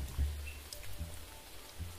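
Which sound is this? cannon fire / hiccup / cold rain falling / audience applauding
cold rain falling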